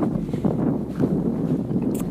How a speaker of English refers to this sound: Uh, you might have a little trouble hearing me right now because I'm outside. And it is kind of windy outside, so yeah.